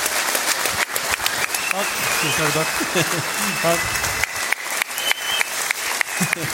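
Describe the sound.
An audience applauds steadily for several seconds, a dense, crackling wash of many hands clapping, while a voice briefly speaks and laughs over the clapping.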